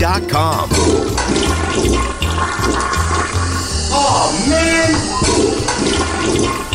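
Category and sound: household object, toilet flushing twice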